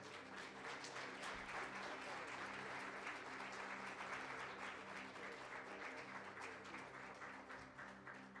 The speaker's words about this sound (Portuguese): Aplauda Jesus, queridos.